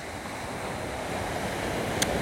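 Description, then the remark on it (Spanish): Gentle ocean surf washes steadily onto the shore, a soft continuous rushing of water, with a faint brief click near the end and no voices; the ocean is calm with no wind at all. “Aunque el océano está bastante relax hoy. Está bastante relax porque no hay nada de viento.”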